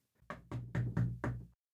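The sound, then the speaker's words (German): Five firm knocks on a door in a quick, even rhythm, fairly loud, with no voices around them. “Es klopft.”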